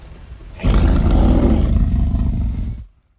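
A giant sand troll's roar, deep and rumbling, bursts in loudly after a low murmur and holds steady for about two seconds before cutting off abruptly as the troll takes a heavy step forward. No one speaks.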